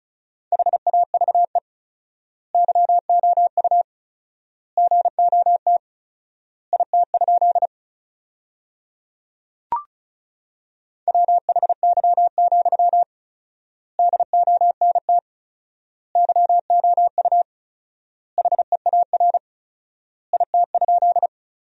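Morse code beeps at 35 words per minute in a steady mid-pitched tone, rapid dots and dashes sending sentences built from the top 300 words, grouped into words separated by long pauses of four times normal word spacing, with one brief click partway through and no voices.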